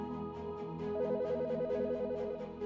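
An electronic telephone ring warbles rapidly between two pitches for about a second and a half over a steady low hum, fairly loud, with no voices.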